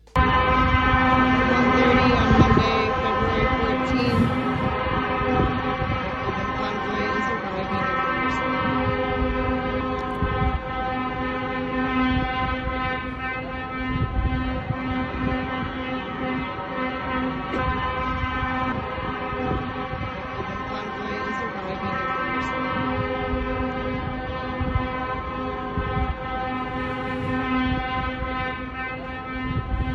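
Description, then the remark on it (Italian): Many truck horns from a convoy of 20,000 truckers arriving in a square in Jerusalem blare together in a continuous, overlapping chorus of sustained tones, loud and unbroken for the whole stretch, with faint crowd and traffic noise underneath. “Eh, anzi, è arrivato nel pomeriggio di ieri e oggi è in piazza con 20.000 camionisti in movimento ed ecco il suono dei clacson all'arrivo a Gerusalemme.”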